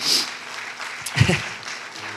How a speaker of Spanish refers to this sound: ¿Cuántos lo creen? Den un fuerte aplauso Jesús.